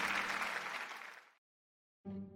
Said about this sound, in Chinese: 各位先生、女士，欢迎来到异想天开拍卖会。今晚将拍卖出十三件艺术品，让我们用最热烈的掌声来迎接最美好的一晚吧。